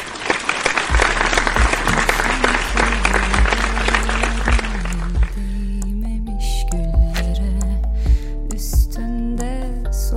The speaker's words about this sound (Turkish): Bak buna alkış. Buna alkış.